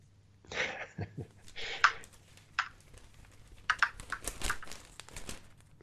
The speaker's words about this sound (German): Huch. Huch. Der Würfel ist aus dem Bild gefallen. Der Würfel ist vom Tisch gefallen.